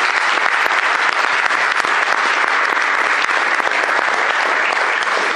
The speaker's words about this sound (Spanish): Tenemos un muy fuerte aplauso para quienes han sido reconocidos en esta ocasión.